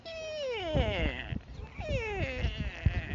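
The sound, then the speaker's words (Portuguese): A voice imitates a motorcycle starter cranking on a dying battery as the motorcycle fails to start: two drawn-out, whining, falling groans with rough sputtering pulses underneath, fairly loud. “Tentei dar partida né, nela até a bateria fazer, fazer som de arrear.”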